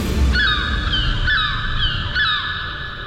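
Seagulls call loudly and repeatedly, their harsh, stacked cries coming in three overlapping bursts over a steady low rumble, like wind or surf, with no one speaking.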